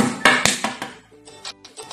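In a children's story, a quick, urgent burst of sharp knocks on the door of a sleeping chick, about four hard raps in rapid succession, followed by softer, fading rattles and faint tonal clatter.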